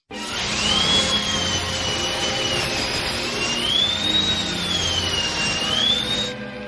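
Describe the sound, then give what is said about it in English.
A loud, continuous dentist drill whine in Isaac Yankem's wrestling entrance music, its high pitch slowly rising and falling, rides over a dense, rumbling wash of noise for several seconds before cutting off abruptly. “There is nothing worse, and, and I know that it was the gimmick, but there's nothing worse than that dentist drill hitting.”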